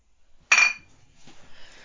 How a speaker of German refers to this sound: Ah, liebe Zuhörer, Prost. Prost, wir stoßen auf euch an.